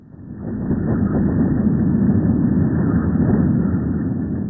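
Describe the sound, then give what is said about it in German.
A steady, dense low roar rumbles continuously after a quick fade-in: ground vibrations from a strong storm moving over the sea toward the coast, recorded by a seismometer and converted into audible sound. A churning wash of noise with no voices. “So klingen Erschütterungen im Erdboden, wenn ein kräftiger Sturm übers Meer Richtung Küste zieht, aufgezeichnet von einem Erdbebenmessgerät.”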